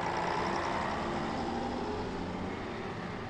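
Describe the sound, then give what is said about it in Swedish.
A loud, steady engine drone with a low rumble and broad mechanical roar from a rusty old former SL bus carrying a team and its supporters to Karlstad. The sound is continuous, with no pauses and no voices. “Bussarna är rostiga och inte direkt anpassade för några längre resor. Det höga motorljudet gör att ingen kan missa att Balrog är på väg till Karlstad.”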